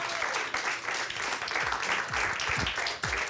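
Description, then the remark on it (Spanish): Sustained applause from a large crowd, given for Christ during a sermon, dense and steady throughout, with some low thumps and faint voices mixed into the clapping. “un aplauso a Cristo, por favor.”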